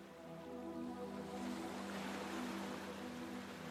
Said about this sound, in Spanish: Y escuchás el sonido del mar, y los chillidos de las gaviotas y el susurro de la hierba en las dunas.